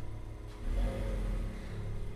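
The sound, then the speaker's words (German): A Buick's engine turns over and catches at a gas station at night, then a low, steady rumble swells and revs as the car pulls away, moderately loud, with no voices. “Ich ließ meine Hand an der Pistole, bis die Lichter angingen bis der Motor anging.”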